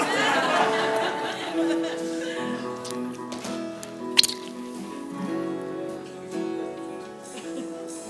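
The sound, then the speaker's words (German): A capped plastic water bottle being squeezed with nothing coming out, giving soft squeaky crinkles and one sharp crackle midway, fairly quiet over a steady tonal background. “Da kommt nichts raus.”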